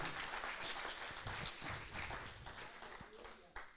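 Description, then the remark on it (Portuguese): A crowd applauds the Lord steadily for a few seconds, a dense wash of many hands clapping at once, with a few voices mixed into the noise and a sharper clap near the end. “Se for para o Senhor, pode ser melhor, pode aplaudir a Ele.”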